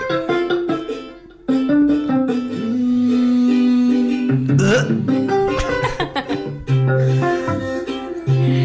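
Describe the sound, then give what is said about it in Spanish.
A fan-made song by a musician plays back loudly and continuously, with a sung melody of sustained, wavering notes over a dense, busy backing that swells and shifts for several seconds. “¿Cómo era la canción?”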